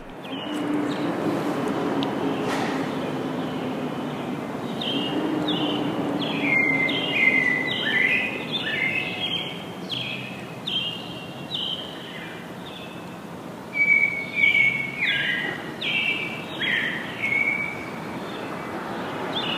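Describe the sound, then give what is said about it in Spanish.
Several birds living in a jacaranda tree chirp and tweet in quick, repeated bursts, growing busier after the first few seconds, over a steady low rumble of traffic or machinery. “Entonces, para ustedes una postal sonora de los pájaros que habitan en nuestra jacaranda.”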